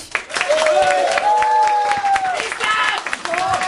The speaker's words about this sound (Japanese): えー、改めて大きな拍手